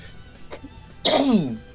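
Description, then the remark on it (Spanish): A single sharp sneeze bursts out after a quiet breath, loud and abrupt, then trails off with a short voiced tail. No talking is heard around it. “Salud.”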